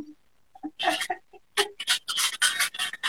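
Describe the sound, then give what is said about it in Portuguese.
Small metallic clicks and clinks of coins being handled and dropped by a child playing with them, in quick irregular bursts, with brief scraping between them and no talking. “Ela tá contando quantas moedas ela tem, tá deixando as moedas dela. Olha, tem bastante moeda pelo barulho.”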